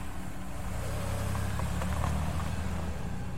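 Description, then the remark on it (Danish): A car engine, just started, hums with a steady, low rumble as the car rolls away from a parking lot on 23 December 1992. It holds an even loudness throughout, with no voices. “Han lagde en pose ind på det andet forsæde, tændte for motoren og rullede væk fra parkeringspladsen.”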